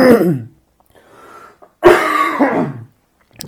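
A person coughs: a harsh cough, a quieter raspy breath, then a second strong throaty cough with a rough tail. No talking.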